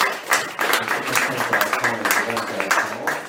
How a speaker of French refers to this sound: Merci beaucoup. Je crois qu'on peut applaudir euh, Merci.